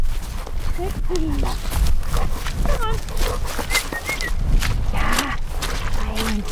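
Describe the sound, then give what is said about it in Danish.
A flock of sheep walks in a line back across fields at dusk, following people, many hooves trampling in a steady shuffle, with occasional faint bleats, brief voices and a few bird chirps in the background. “I en række følger forerne efter os tilbage over markerne.”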